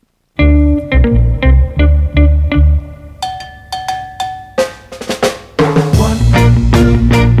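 A 1968 rocksteady record plays, with a steady offbeat rhythm of bouncy bass and choppy guitar chords, bright percussion hits, and a fuller band swell toward the end; no one speaks over it.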